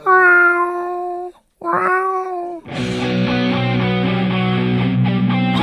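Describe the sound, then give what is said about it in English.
A little cat up above lets out two loud, drawn-out meows with a short pause between them, then a dense, buzzing wash of sound takes over for the rest. “There's a little cat up there.”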